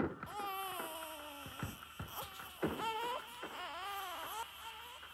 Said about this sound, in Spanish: El débil llanto de su hijo sacudió a la guacha en su doloroso quietismo y acariciando siempre la cara fría y sangrienta de su hombre, hundió el roñoso pezón en la boca infantil, ávida en su demanda.